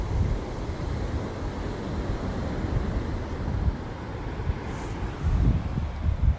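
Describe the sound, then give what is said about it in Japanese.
Steady roar of wind buffeting the microphone over the wash of waves breaking on the shore of a beach where many people are fishing, with a couple of heavier surges near the end; no one speaks. “今日は釣りをしている人がいっぱいいらっしゃいますこんな波打ち際で釣れるんだねお魚が”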